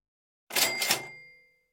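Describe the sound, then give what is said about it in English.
A cash register rings up a sale: a bright two-part ka-ching with a metallic bell tone that rings on and fades within a second. No one speaks over it. “Uh, why, why don't I actually ring that up?”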